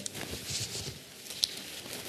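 Thin Bible pages are flipped quickly, giving soft, papery rustling with light crinkles and one small sharp tick, quiet, with no voices.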